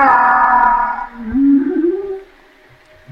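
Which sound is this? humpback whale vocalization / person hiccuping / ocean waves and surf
humpback whale vocalization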